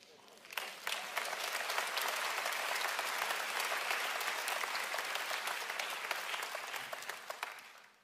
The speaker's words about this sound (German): Die Hausfrauen jubeln jetzt.